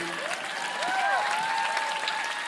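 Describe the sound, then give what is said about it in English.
An audience claps steadily throughout for an interpreter, a dense, even patter of many hands, with a few faint tonal whoops or cheers drifting through the applause. “Give him a clap. Може да го аплодирате.”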